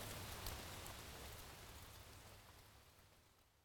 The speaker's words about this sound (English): But right now, it's just a very quiet, kind of serene, wooded area with a stream running through it. The leaves are changing. There's a light rain falling.